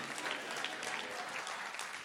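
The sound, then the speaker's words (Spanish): An audience claps steadily in thanks to God, many hands producing a dense, continuous patter of applause at an even loudness, with no voices standing out. “Vamos a darle un mejor aplauso.”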